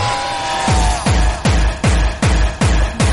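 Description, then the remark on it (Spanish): A loud electronic dance song plays with a deep, booming kick drum pounding on a steady beat under dense, buzzy synth layers; no singing is evident. “Bueno, este temita era de cuando yo empezaba a salir en el año eh, X, ¿sabes?”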